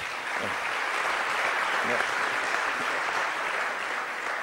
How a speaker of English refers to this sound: We don't have enough time for applause, really.